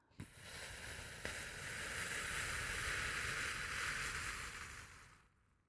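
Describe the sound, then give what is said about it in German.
A slow, steady breath exhaled through the mouth after breathing in through the nose, an airy hiss lasting about five seconds before trailing off, with no talking. “Durch die Nase ein und durch den Mund wieder aus.”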